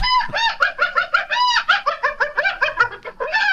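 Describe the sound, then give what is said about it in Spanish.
Loud chicken-like clucking in a rapid, uneven string of harsh, nasal bursts with a slightly yappy, bark-like edge, like a mix between a hen and a dog, running continuously for a few seconds with no talking. “Es una mezcla como entre gallina y perro, ¿no?”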